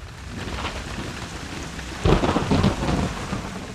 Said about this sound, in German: Eiskalter Hagel prasselt auf sie herab